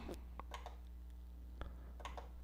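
computer mouse click

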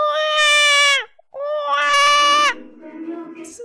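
baby crying

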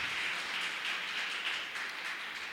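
audience applause

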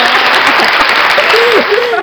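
applause sound effect

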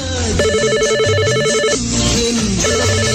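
telephone ringing

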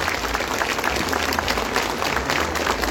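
audience applauding

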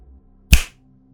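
finger snap

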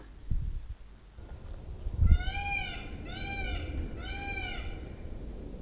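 peacock calling

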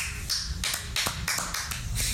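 applause

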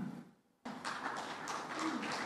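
audience applause

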